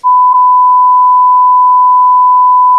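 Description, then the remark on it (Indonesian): A loud, steady censor bleep: a single pure electronic tone holding unbroken at one pitch for nearly three seconds, with no voices around it. “Nanti ala cuman tit tit tit.”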